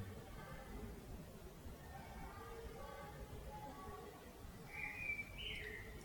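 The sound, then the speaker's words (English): A bird gives a brief, bright chirp or two near the end, standing out over a steady low background hum with faint voices of children murmuring throughout. “The bird, your feelings and thoughts.”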